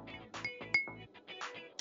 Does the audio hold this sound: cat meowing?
no